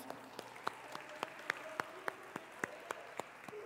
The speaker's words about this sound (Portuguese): Amém, glória a Deus. Pode aplaudir é para Jesus.